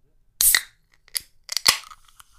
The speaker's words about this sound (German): eine Dose Almdudler. Und wir hören mal, wie das klingt, wenn man die hier aufmacht. Ich, machst du es auch mal, dass du bei so Dosen immer so draufklopfst, obwohl das eigentlich gar nichts bringt, wahrscheinlich?